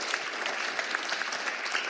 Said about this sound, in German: Lass uns jetzt mal einen Applaus geben.